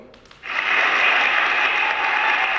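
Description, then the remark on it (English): A burst of applause starts abruptly after a brief faint lead-in and holds steady and loud, a dense, hissy wash of clapping with no talking over it. “But but before we do, man, I want to give you an applause once again on purchasing the house and having the house warming.”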